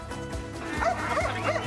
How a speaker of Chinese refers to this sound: 超过一百五十只狗狗和人类伙伴奋力向前冲，狗叫声、欢呼声此起彼落。